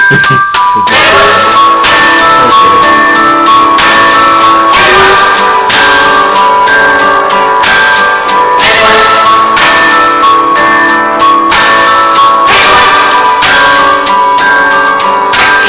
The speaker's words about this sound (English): This in Black Mirror, there's a constant song that can be either played by different characters or radio stations. That's a constant theme, um, and it sounds like this.